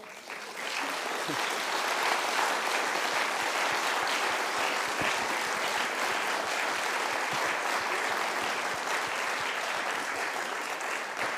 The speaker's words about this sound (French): Nous restons sur cette note légèrement optimiste et je remercie en votre nom, d'ailleurs vos applaudissements viennent de le faire,